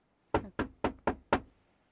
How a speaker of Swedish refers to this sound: Nu står jag upp här. Av någon anledning så vill jag börja med att knacka.